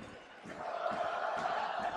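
A basketball arena crowd at a Rockets versus Jazz game cheers in a steady, broad roar that swells slightly and holds through the whole clip, with faint intermittent thumps underneath and no clear voices standing out.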